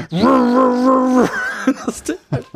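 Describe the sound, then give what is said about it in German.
A voice imitates the steady drone of an old portable air-conditioning unit, a big green metal box with a wide hose hanging out of the window: a sustained, even, buzzing hum lasting just over a second, followed by a few quick bursts of speech or laughter. “Der war so hoch, also so auch 81 ungefähr hoch hoch, ein Riesenmetallding mit so einem breiten Schlauch, der rausgeht, der hing aus dem Fenster und es macht ja so”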